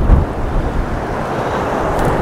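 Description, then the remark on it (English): Strong wind buffets the microphone on an open moor in a steady, low roar, the trailing edge of Storm Dennis, dense rumbling energy filling the low end with gusty swells and no voices. “The storms have passed and this wind is the last kind of trailing edge of Dennis, I think.”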